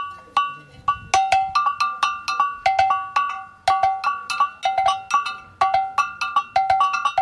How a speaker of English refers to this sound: They demonstrated the elements of the ensemble. First, the tamalin. Then the two bells.